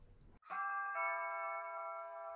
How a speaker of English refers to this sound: Damn, your doorbell is loud. I don't even think it's a doorbell. I think it's just a notification that uh, someone's going outside. We got a new home security system.